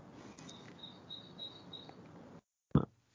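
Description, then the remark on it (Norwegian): Several short, high bird chirps repeat in a loose rhythm over a steady outdoor hiss, heard through an open balcony door on a warm day in Oslo, followed by a sudden cutoff to silence and one brief low thump. “Jeg tenker, hvem er det som har på denne fuglekvitteren i bakgrunnen?”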